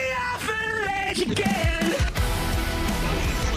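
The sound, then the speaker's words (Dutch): A short burst of loud, heavy rock music, with a strained, shouting vocal over dense distorted guitars and pounding drums, played continuously at full volume. “Zo zou de nieuwe single zo klinken.”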